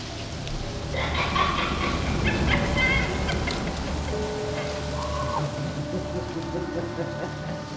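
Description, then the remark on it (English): A steady, dense rustle of wind-blown leaves in very big trees in Rexdale fills the scene, broad, with faint warbling tonal sounds drifting through the texture now and then. “It's just the leaves rustling.”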